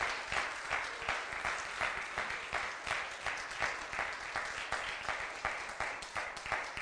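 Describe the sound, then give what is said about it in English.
A crowd claps steadily for several seconds for the Lord, a dense wash of many hands with a loose pulsing rhythm that stays fairly loud throughout, with no voices standing out. “Clap your hands one more time for the Lord.”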